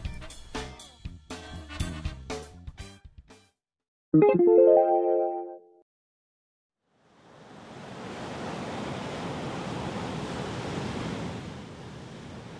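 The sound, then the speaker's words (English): A few punchy musical hits and a bright tonal chime give way to a steady wash of ocean surf that swells in and rolls on continuously, with no one speaking. “Ah, I really love the sea.”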